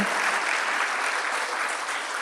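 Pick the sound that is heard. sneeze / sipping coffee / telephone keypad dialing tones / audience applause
audience applause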